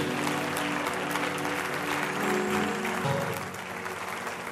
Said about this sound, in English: Let's give the Lord a great big hand clap on this morning.